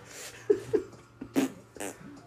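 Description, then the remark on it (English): A few short, sputtery fart noises blown with the mouth, fairly loud, coming in quick uneven bursts with brief pauses between. A voice imitating farts, with no real words spoken. “I make fart noises with my.”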